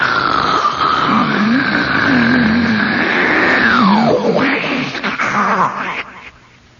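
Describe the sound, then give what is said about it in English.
A voice imitates the sea rolling back out of Thunder Hole, a hollow the ocean has worn into a sea cliff: a long, loud, hissing roar with a gargling, pitch-sliding hum underneath, surging for about six seconds before tailing off abruptly. “When when the sea goes rolling back out, it goes.”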